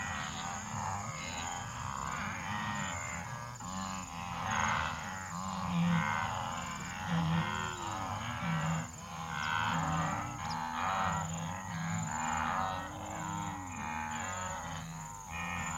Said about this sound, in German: Das ist das Ziel der Wanderung. Langsam taucht es aus dem Schwarz. Wildebeest. Dicht beieinander. Vielleicht 200.